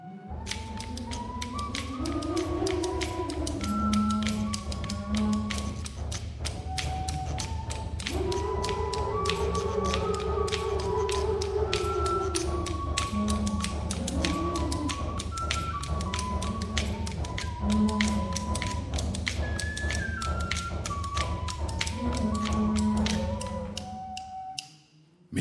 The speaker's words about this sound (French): et le chant des galets frappait l'un contre l'autre dans la salle principale de la grotte de Tito Bustillo. Et écoutons la musique étrange qui surgit quand tous ces sons se mélangent.